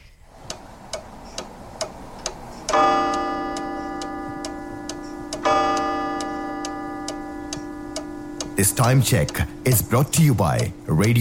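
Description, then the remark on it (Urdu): A radio studio clock ticks steadily and crisply, about twice per second, during a time check on Sangam FM at 11:16, while two long ringing chime tones sound in turn. Near the end a voice starts talking over the ticking. “سنگم seven point nine F M اور ninety four point seven F M پہ studio کی گھڑی کی سوئیاں کہتی ہیں یارہ بج کر سولہ منٹ ہوا چاہتے ہیں”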